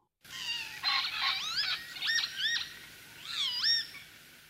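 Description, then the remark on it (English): Several wheezy, slurred lapwing calls ring out clear, rising and falling in pitch, in a few quick bursts with short pauses between, over a faint steady background hiss. “More easily heard is the call.”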